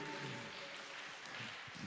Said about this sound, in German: Und es geht um das, dass wir, genau, gebt den Applaus.